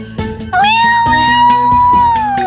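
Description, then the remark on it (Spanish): A cat lets out one long, drawn-out meow that holds steady before trailing off, loud, over a soft rhythmic background. “Échale unos maullidos a escuchar.”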